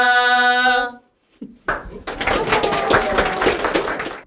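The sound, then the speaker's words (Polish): A held, harmonic sung note fades out, a short pause follows, then a crowd bursts into loud, dense, continuous applause that keeps going to the end, with faint voices mixed in. “Tak jak Państwo słyszą, mnóstwo oklasków”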